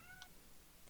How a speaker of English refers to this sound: Wow, that's my cat screaming. Oh my gosh.